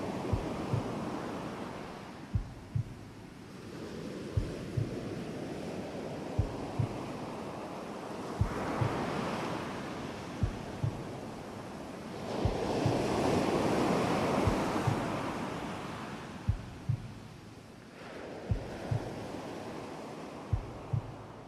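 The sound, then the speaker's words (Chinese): Broad rushing wind from outside a window on a quiet night swells and fades in slow, regular surges, each lasting a few seconds, sounding like waves rolling in, with faint soft low thumps ticking beneath it. “在某一些针掉到地上都听得见声音的夜晚，从窗外传来的风声会听起来无比规律，一阵一阵。”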